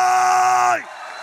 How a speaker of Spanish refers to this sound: Alguien de un grito de gloria.